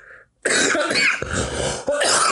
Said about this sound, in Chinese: 我气到有痰， 气到气到咳嗽。